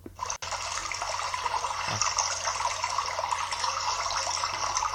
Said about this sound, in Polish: To chyba miał być jakiś plusk wody w strumieniu. Albo coś takiego.